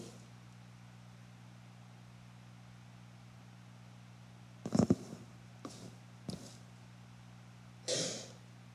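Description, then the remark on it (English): A person coughs and clears their throat in a short cluster of harsh bursts, then one more rasping clear a moment later, all over a steady low electrical hum with no talking. “I'm trying to get through this without sneezing and sniffling and coughing.”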